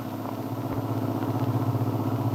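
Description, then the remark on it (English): A car engine drones steadily as the car drives toward a farm a few miles out of town, a low, even rumble with a faint rhythmic pulse, continuous throughout, with no voices. “Now they are in their car heading toward the Descari Farm a few miles out of town.”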